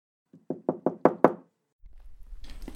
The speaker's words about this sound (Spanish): me parece que pegan a la puerta, tío. Le están dando a ese par de aldabas, ¿no? Sí, sí.